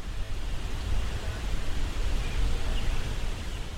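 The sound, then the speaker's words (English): A steady, low rumbling wash of distant traffic from Milwaukee Street, heard from a hiking path, a constant hum heavy in the low end with no distinct vehicles standing out, holding at an even, moderate level throughout. “Eventually, the dirt road turns to a hiking path, and the sound of traffic from Milwaukee Street fades to a distant hum.”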